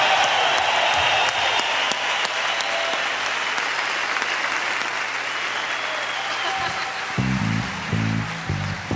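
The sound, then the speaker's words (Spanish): An audience at a rock and roll show applauds disabled guests and their families steadily, a dense wash of clapping that holds for the whole stretch, with faint voices and a few low musical tones coming in near the end. “Que soy un aplauso para ellos y para sus familias que vienen a traerlos al rock and roll.”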